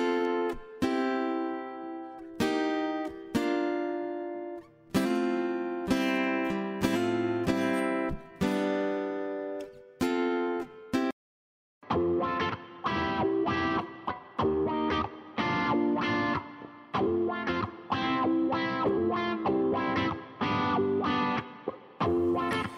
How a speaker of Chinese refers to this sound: 以下呢，我们听到的是两把不同的节奏吉他，一个是普通的声音，还有一个叫做哇哇的声音，是这种效果器做出来的。